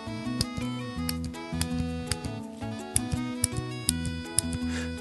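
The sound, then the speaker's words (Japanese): The knock button of a Smash mechanical pencil clicks repeatedly to advance the lead, in a loose series of sharp, crisp snaps, heard over a steady background of music. “そんな中でもねこのスマッシュというのは、えー、まあノック音もいいですねあのカチカチカチって小気味良いっていうかね、えー、良いか、えー、ノック音です、えー、聞こえるかな”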